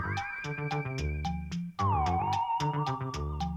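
A drum loop played from a record, with a bright, metallic cowbell hitting in a steady, repeating rhythm over layered tonal music. It plays loud, with a brief dropout partway through and no voices.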